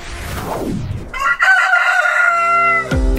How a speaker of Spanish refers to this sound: Así, con el bello y melodioso canto del gallo y los mágicos sonidos de la naturaleza que nos indican que el campo se pone en marcha y que los hombres y mujeres campesinos de Colombia se disponen a iniciar una nueva jornada, les damos los buenos días